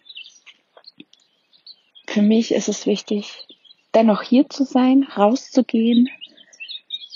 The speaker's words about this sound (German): Ihr hört wahrscheinlich wieder im Hintergrund ähm, die Vögel fleißig zwitschern.